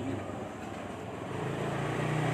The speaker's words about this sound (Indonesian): motor lagi